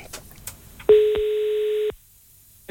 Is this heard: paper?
no